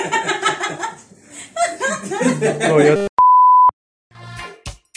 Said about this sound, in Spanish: ¿cómo tenemos una actitud ante una alarma de incendio?